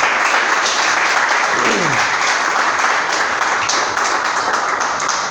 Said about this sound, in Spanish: Denle un aplauso a Jesús, por favor, esta mañana.